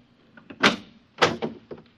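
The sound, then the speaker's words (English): A door is worked open by hand: two loud, scraping mechanical clunks about half a second apart, each followed by smaller rattling knocks, with no voices. “Oh, oh, the auto bursar must have forgotten to pay the door bill. Have to open it manually.”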